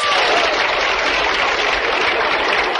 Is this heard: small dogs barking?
no